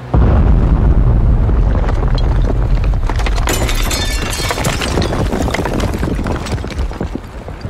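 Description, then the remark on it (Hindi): A loud cannon blast in Lucknow, a shell fired from a cannon with a vizier tied to it, bursts into a long rumbling roar with crackling, shattering debris raining down as the roof of the sitting room is blown apart, holding strong for several seconds before easing slightly. No voices are heard. “तोप आई वजीर को उससे बांध के जैसे ही गोला दागा गया”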